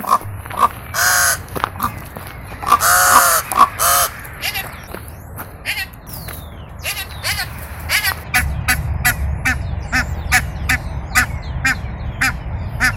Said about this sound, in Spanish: Sonidos de chovas, piquirrojas, cuervos y cariblancas.